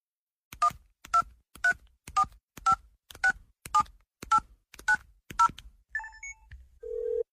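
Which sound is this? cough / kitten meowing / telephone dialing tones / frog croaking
telephone dialing tones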